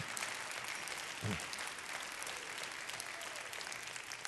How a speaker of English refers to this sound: You're patty caking, you're half clapping.